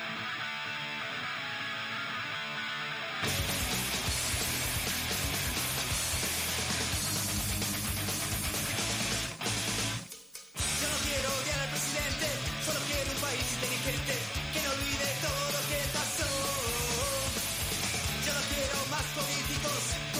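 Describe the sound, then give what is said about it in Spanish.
A loud Argentine punk rock song plays, with a thin opening few seconds before the full, dense band crashes in and drives on steadily, pausing briefly near the middle. “siendo la voz de los 90, por eso vamos a escuchar …”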